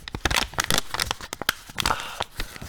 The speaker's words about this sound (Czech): Eh, uh, můžou třeba šustit papírem